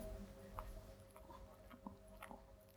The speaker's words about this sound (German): schmatzend, hustend